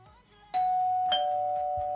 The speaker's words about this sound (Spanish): así que vamos a tocar la puerta, a ver, toquemos el timbre de nuevo.